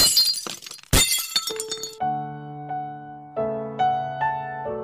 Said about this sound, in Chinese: 但玻璃发生碰撞时，只能碎裂吗？